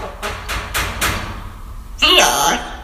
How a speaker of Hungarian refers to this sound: Van itt még hangunk egy kopogtatás után